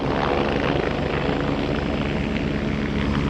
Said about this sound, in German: Ein verchromter Helikopter schwebt vom stahlblauen Himmel herab. Über dem Sprungturm bleibt er in der Luft stehen das ganze Freibad starrt mit offenem Mund nach oben.